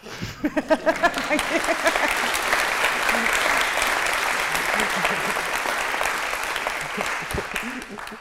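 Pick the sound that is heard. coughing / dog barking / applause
applause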